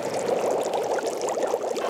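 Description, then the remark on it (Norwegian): A pot of water at a rolling boil for pasta, a dense, steady bubbling and gurgling with many small pops, continuous and fairly loud throughout, with no one speaking. “Pastaen kommer til å koke etter hvert.”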